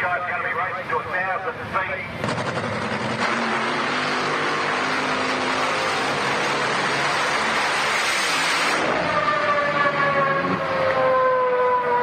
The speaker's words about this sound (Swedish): Och vi kan göra så att vi lyssnar till storfavoriten tillika fjolårsvinnaren Fjodor Olsen som precis ska bränna iväg på sin topptrimmade V8-tröska långt där uppe i backen.